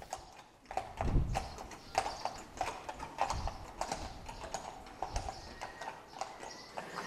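Horse hooves clip-clop steadily over a cobbled street, a continuous run of sharp, uneven knocks at walking pace, moderately loud, with no voices.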